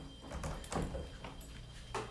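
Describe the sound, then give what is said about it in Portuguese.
A door being closed, with a few soft knocks and clunks spaced over a couple of seconds against a quiet background, and no one speaking. “fechando a porta aqui.”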